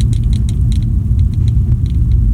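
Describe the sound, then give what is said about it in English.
Loud engine roar from race cars tearing by on a track, a dense low rumble that holds steady throughout with faint rattling ticks above it and no voices. “Um, hearing the joy that he has, the love that he has, and that visceral sound of those cars as they tear by across the track.”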